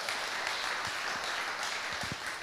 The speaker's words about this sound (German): Applaus, oder?